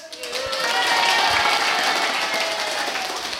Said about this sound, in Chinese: 现在我所在的空间呢，现场的观众有一百多位，而且都是小美女跟小鲜肉。让我们来一个欢呼声吧！